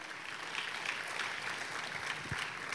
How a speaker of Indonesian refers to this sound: Tepuk tangannya pula yang paling meriah.